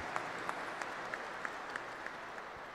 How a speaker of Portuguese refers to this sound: Acolhemos todos vocês com uma grande salva de palmas. Sejam bem-vindos à casa da nossa querida mãe Aparecida.